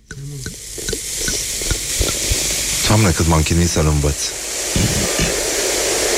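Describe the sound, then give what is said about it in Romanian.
Sparkling wine fizzes in a glass with a steady, bright crackling hiss that runs throughout, while a voice speaks over it in short bursts. “Furtună într-un pahar cu spumant.”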